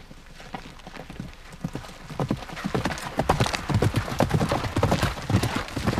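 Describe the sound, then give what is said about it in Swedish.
Horse hooves clip-clop in a steady, uneven rhythm, growing louder as two Russian border guards ride slowly past on horseback about 20 meters away at the Russian border. There are no voices, just the repeated hoofbeats on hard ground. “I samma ögonblick hörde vi hovtramp och kastade oss snabbt ner på marken.”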